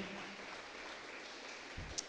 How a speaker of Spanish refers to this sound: En el nombre de Jesús, quien lo crea, dele palmas fuertemente al Señor para que Él sea glorificado. Amén.